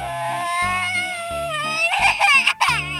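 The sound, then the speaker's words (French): A voice wails in a drawn-out, theatrical fake sob, pitch wavering and swelling louder near the end, over a steady rhythmic musical backing. It sounds like a person imitating crying. “Je déteste ça, des fois même je pleure.”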